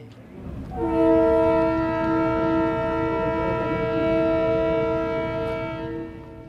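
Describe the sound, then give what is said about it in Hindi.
A train's horn blares in one long, steady, loud blast for several seconds over the low rumble of the moving train, then fades slightly at the end. “आइए रेलगाड़ी में बैठें और कोयटे से कलकत्ते तक चलें”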